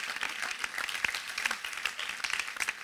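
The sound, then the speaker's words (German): An audience applauds steadily, a dense wash of many overlapping hand claps at moderate loudness with no talking, sustained throughout with small swells. “Ja, das ist ein Applaus wert.”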